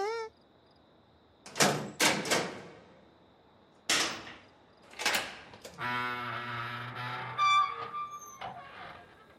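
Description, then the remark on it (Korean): A few sharp, hollow knocks on the wooden door of a mansion fitted with an iron bolt land in quick clusters, knocked twice in a postman-like way, fairly loud, followed by a long, drawn-out creaking squeal as the bolt is drawn back and the door opens. “이제 내 노크 소리집은 구별할 수 있을 텐데”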